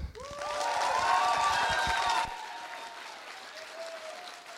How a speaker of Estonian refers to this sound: aga võtame suure aplausiga, umbes sellise aplausiga nagu Tony Robbinsit vastu